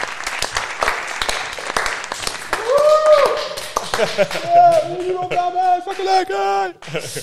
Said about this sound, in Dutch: Die zei, ja, ik had altijd verwacht dat jullie aan de tafel zaten met allemaal mensen. Ja, maar, dat komt door het applaus, hè?